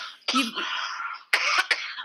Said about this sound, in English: just after your little uh, coughing.